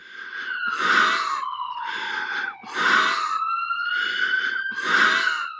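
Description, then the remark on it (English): A ventilator keeping a COVID-19 patient alive breathes in steady, rhythmic whooshes, roughly one per second, with a thin electronic tone running underneath. Fairly loud, with no voices. “The sound of a ventilator echoes in your ears as a loved one clings to life, battling COVID 19.”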